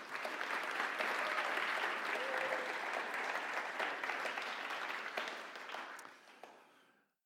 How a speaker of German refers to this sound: Applaus für die beiden Jungs.